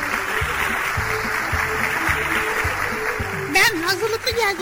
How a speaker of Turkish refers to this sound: Tamam teşekkür ediyoruz alkışlar için.